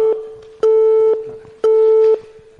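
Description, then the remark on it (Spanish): A telephone busy tone as a call drops for lack of coverage inside the Teatros Luchana: steady mid-pitched beeps about half a second long, repeating in a regular on-off rhythm, three pulses heard with no one talking. “Se nos está cortando, ¿eh?”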